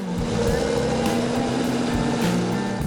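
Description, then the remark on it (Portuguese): A latest-generation farm tractor's engine runs steadily as a 21-year-old driver operates it from the cab in Rio Grande do Sul, Brazil: a loud continuous diesel drone with a low, rhythmic throb and no voices. “Da cabine Jean, de 21 anos, comanda o trator de última geração.”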